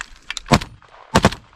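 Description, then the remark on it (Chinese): Gunfire on a battlefield: two loud, sharp bursts, each a quick double crack, with a few fainter pops before them and a low rumble in between. No one speaks. Ukrainian counteroffensive troops run forward under fire, aiming to take a Russian strongpoint on this front line. “乌克兰反攻部队在枪炮声中快跑前进，目标是打下俄军在这条战线上的据点。”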